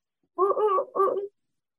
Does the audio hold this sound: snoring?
no